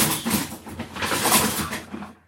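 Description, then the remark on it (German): A kitchen drawer slides open and its contents are rummaged through while someone searches for a stirring utensil, with a steady stretch of clattering and scraping noises lasting about two seconds before fading out. “Dann habe ich meine Schublade aufgeräumt, aber noch nicht wieder eingeräumt.”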